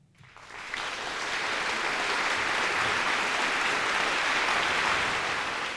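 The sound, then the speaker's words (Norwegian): Sustained applause from a crowd, swelling in after a quiet start and holding steady and loud as a dense wash of clapping for several seconds, with no talking over it. “Vi vil jo helst dele ut mer applaus eh, enn noe annet.”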